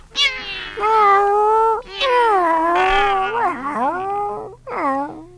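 Kittens meow loudly, three high, drawn-out cries in a row, the middle one long and wavering, with no talking around them.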